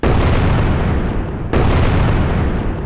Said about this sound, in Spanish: un fuerte estruendo se escuchó. Una explosión. Todo mundo se abalanza hacia los ventanales para ver qué fue lo que lo provocó.